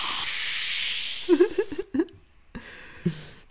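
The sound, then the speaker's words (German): A loud fizzing hiss of a drink being opened lasts about two seconds with a few soft murmurs underneath, then a fainter second hiss follows after a short pause. “zisch und weg, ein Getränk.”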